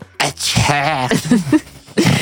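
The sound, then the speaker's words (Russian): A single loud sneeze with a drawn-out, wavering voiced build-up before the burst, heard on its own with no talking. “Можно чихнуть, пожалуйста.”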